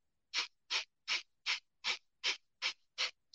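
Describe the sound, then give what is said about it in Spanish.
Rapid, forceful yogic 'breath of fire' breathing, pushed out through the nose with the navel pulling in on each exhale: eight sharp puffs in a steady quick rhythm, clear with no talking. “vamos a hablar de respiración de fuego por la nariz”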